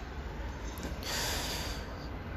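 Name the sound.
nasal snort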